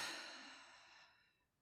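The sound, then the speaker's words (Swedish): A slow, audible exhale of breath during a guided stretching and breathing exercise, soft and airy, starting strongest and gradually fading away over about a second and a half, heard alone. “Och andas ut.”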